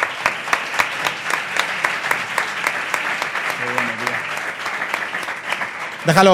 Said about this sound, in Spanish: Un aplauso, por favor. Gracias.